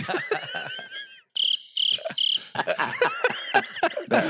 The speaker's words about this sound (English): I had to get the crickets at least once.